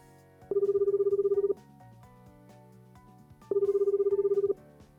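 An outgoing phone call's ringback tone sounds twice, each a one-second buzzing, warbling tone separated by a pause, clear and fairly loud over faint background music.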